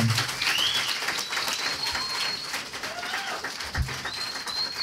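A live audience in Monterrey claps steadily for several seconds while a few sharp, high whistles rise and glide over the applause, with a couple of low thumps near the end.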